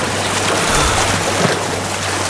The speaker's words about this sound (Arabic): البحر خضم أمواج تتلاطم